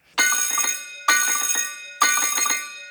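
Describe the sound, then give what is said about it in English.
A high school bell on the mainland rings three times during the last period on a Friday afternoon in very stormy weather, calling the Millport pupils to the dinner hall. Each ring is a loud, bright metallic clatter in an evenly spaced burst that starts sharply and trails off before the next, with no voices present. “Now, all the Millport kids went to the mainland for high school, and it was last period, and the weather was absolutely shocking, and the bell rang three times.”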